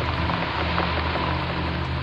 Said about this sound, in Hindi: उसने उठकर खिड़की से बाहर झांकने की बहुत कोशिश की परंतु तेज बारिश होने के कारण बाहर सब कुछ धुंधला धुंधला दिखाई दे रहा था